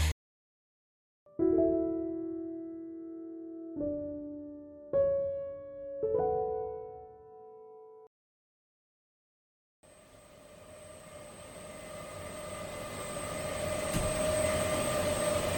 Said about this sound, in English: The sound you're hearing is that of a data center in Europe. It was recorded by London based artist Matt Parker. Data centers are the factories of our era, and they can be a big source of carbon emissions.